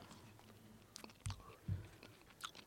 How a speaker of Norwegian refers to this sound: Det, det, må tygges. Det er hardt.